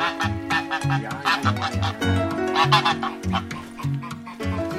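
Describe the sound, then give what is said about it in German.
A domestic goose, a pet named Money Penny, honks loudly and repeatedly, harsh nasal calls coming close together in a busy, continuous stretch with no one speaking. “Im Hintergrund hörst du jetzt meine Gans, die Money Penny.”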